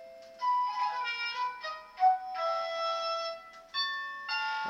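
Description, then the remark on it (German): A wireless doorbell chime, linked by radio to a small bell button at the front door downstairs, plays a series of clear, bright melodic tones, several notes ringing out in succession with sustained overtones, heard alone at moderate volume with no talking. “Das ist eine Funkklingel.”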